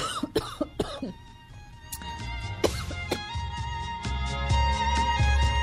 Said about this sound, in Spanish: Ay, perdón, perdón, me dio un poquito tos